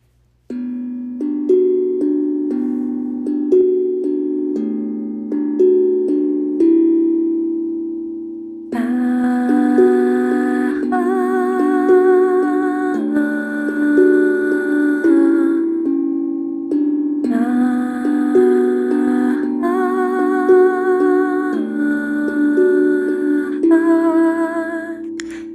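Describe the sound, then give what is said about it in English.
An instrumental intro of a song written about the church: a steady low melody plays alone for several seconds, then fuller, brighter instruments with a wavering, sustained tone join in, building a loud, continuous arrangement with no voices. “So she's allowing us to play her song that she wrote about the church.”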